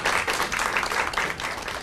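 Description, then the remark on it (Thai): A crowd applauds steadily, a dense wash of many hands clapping at once, sustained and fairly loud for a couple of seconds with no voices over it, applauding the dean of the Faculty of Commerce and Accountancy at Thammasat University. “คณะบดีคณะคณิตศาสตร์และการบัญชีมหาวิทยาลัยธรรมศาสตร์ครับขอเสียงปรบมือ”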